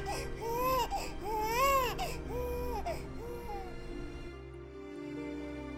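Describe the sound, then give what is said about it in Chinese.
An infant wails in a series of rising and falling cries, loud and tonal, for about four seconds before fading into a low background hum. “他看见哭闹的彻儿，咬着下嘴唇，又一阵心痛。”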